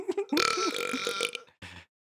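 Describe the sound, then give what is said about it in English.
A long, loud, rumbling burp, followed by a short second belch after a brief pause. “They're funded by burps.”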